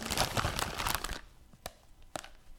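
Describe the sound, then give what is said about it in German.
Crinkly plastic packaging bag rustling as someone reaches into it, a dense burst of crackling for about a second, then a few sharp isolated crinkles with quiet gaps between them. “Es raschelt.”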